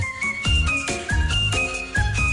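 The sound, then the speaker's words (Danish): A six-year-old girl whistles a very Ukrainian-sounding melody over full instrumental backing, with a steady beat and strong bass hits landing roughly every second or so. No one speaks. “Og hun øh, siger, at hendes drøm det er bare at blive øh, verdens bedste til at, at øh, fløjte.”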